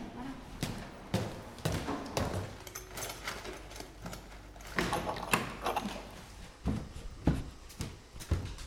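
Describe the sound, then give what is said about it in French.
A door with a code lock is worked open and shut, with a string of sharp clunks, knocks and rattling handle sounds coming in irregular bursts over several seconds. “Vas-y, tu peux ouvrir la porte, à droite.”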